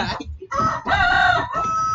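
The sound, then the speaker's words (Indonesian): A rooster crows loudly, a long strained cock-a-doodle-doo broken into a few bursts with brief gaps, harsh and harmonic, ending in a drawn-out high note. “udah suara ayam cuma di sini guys Aduh, malah nggak bisa ngedit cara hilangin suara ayam kudu ya”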